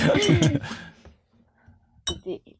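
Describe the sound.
Bright glass clinks ring out as glasses of bubbly are raised in a toast: a few quick taps mixed with voices, then a pause and one more sharp clink followed by brief talking.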